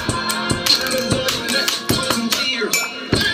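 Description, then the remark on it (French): Two pens drum a quick, uneven rhythm on a table and two mugs, sharp clicking taps mixed with brighter ringing knocks, over a steady background music track played from a phone, with a recorder now and then. “Deux stylos, une table, deux mugs et une track en fond sur son téléphone.”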